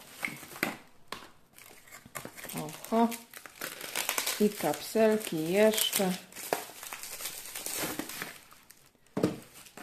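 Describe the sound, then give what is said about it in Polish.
A paper envelope is unpacked with repeated crisp crinkling and rustling bursts throughout, while a person speaks a few short phrases over the handling noise. “Bardzo fajna koperta, bardzo mile to widzieć.”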